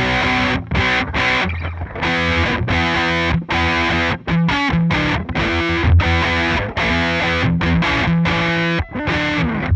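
Electric guitar played through an effects pedal with the gain turned down a little and the peak type switched to High, giving a V-shaped sound, with a thick, distorted tone and strong harmonics. Chords and short riffs are punctuated by brief pauses, loud and steady, with no voices.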